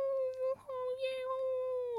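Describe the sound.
A voice imitates a man's sleepy whimper during a nightmare in the middle of the night: a long, steady, high-pitched nasal whine with a brief catch near the start, fairly loud, with no other sounds around it.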